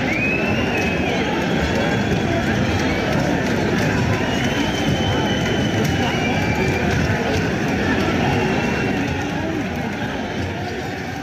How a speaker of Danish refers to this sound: så udviklede det sig pludselig til slagsmål mellem nogle Brøndby-fans og nogle AGF-fans i den ene ende